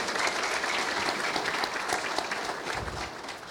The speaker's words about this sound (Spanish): Un aplauso también para esa respuesta.